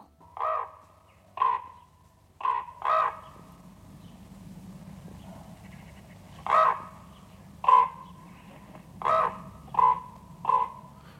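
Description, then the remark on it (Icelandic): A raven croaks about nine times in short, harsh bursts, loud, with uneven pauses between calls and a low background rumble. “Krummi krunkar út inn, meira en þetta á eftir.”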